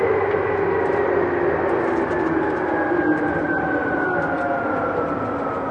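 A Tokyu 8500 series train in Japan running between stations on the route from Omotesando to Azamino: a steady, loud rumble of wheels and motor with a rising whine sweeping gradually upward, continuous throughout with no voices.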